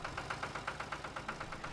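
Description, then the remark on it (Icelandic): A tractor with a mower, heard outside and being brought in to be put away now that the year's mowing and haymaking are finished, chugs in a steady, quick rhythm of even pulses, a low mechanical rumble running throughout at a fairly soft level, with no one speaking. “Þetta er hérna uh, eh, dráftæfin með sláttuvélina og nú búið þó sláttuvélina og að fara að setja hann inn því heiskap er slættið lokið þetta árið”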